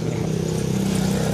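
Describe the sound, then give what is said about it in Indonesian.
A motorcycle engine drones steadily, its low hum holding a constant pitch amid the general noise of a busy street market in Jakarta. “mungkin seperti yang teman-teman dengar juga nih suara, suara di belakang nih ada suara motor ya aktivitas pasar rame ya inilah Jakarta hari ini.”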